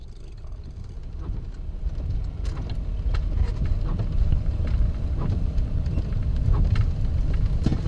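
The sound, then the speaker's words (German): Steady rain and cold gusting wind roar outdoors over the Hunsrück-Höhenstraße, a highway crossing the Hunsrück uplands from Trier to Koblenz, after hours of rain: a dense low rumble that swells slightly after the first seconds, with scattered sharp drop ticks and the faint wash of passing traffic, no voices. “Seit Stunden regnet es und ein kalter Wind pfeift über die Hunsrück-Höhenstraße, die gut 150 Kilometer quer über das Mittelgebirge von Trier bis Koblenz führt.”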